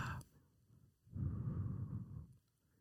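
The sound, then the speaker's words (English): Someone breathes through the nose right against a microphone: a brief puff, then a single long, rumbling exhale lasting over a second, muffled, with no talking. “the long pauses, but the you breathing into the microphone.”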